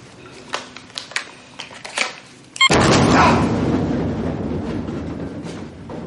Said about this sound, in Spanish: Cambian las pilas y finalmente logra volar la cámara. Abren la puerta y entran al lugar que se encuentra ruinoso por la explosión.